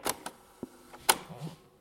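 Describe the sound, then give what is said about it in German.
A series of sharp mechanical clicks and clunks as the buttons of a cassette recorder are pressed to find Play, a few irregular knocks with a faint rustle between them, no voices. “Meine Mutter kommt zurück mit einem Kassettenrekorder in der Hand.”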